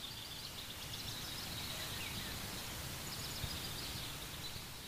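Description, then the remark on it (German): Small birds chirp in quick, repeated high twitters throughout, faint over a steady outdoor hiss with soft rustling underneath, as they land near a pond and peck for food at the shore. “Kleine Vögel landen zwitschernd in der Nähe des Teiches und picken am Ufer nach ihrem Futter.”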